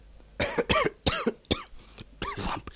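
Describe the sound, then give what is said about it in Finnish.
A run of about five loud, harsh coughs in quick succession, each a sharp raspy burst with a voiced, throaty edge, separated by brief pauses, with a slightly longer gap before the last. “Samperi viikon, kun ei uskalla yskiäkään enää kun on terveemmiltä toimittaa kollegoillani.”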